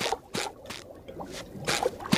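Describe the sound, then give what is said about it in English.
Water runs into a bathtub being filled for Gary's bath time, in uneven, splashy gushes that swell and ease over a couple of seconds, fairly soft, with no voices. “Come on, let's go get the water started.”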